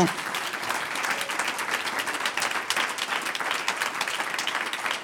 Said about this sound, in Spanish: Vamos a darle un aplauso de agradecimiento.